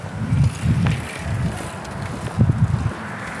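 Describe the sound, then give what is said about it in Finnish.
Wind buffets the microphone in irregular low rumbling gusts, swelling and easing across a few seconds with a faint hiss of outdoor ambience behind it; no one speaks. “Tässä tuuli ottaa, katsotaan.”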